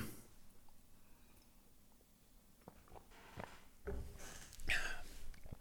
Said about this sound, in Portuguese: Se o microfone for bom, vocês ouvem a deglutição.